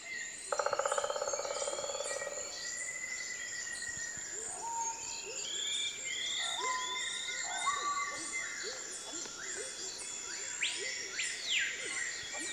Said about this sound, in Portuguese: É o caso desse pica-pau de tupete vermelho, muito parecido com o do desenho animado. Ele golpeia o tronco das árvores atrás de lagartas, o seu café da manhã favorito.